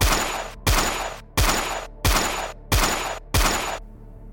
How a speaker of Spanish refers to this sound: Andrés Escobar fue acribillado dentro de su auto recibiendo seis disparos en su espalda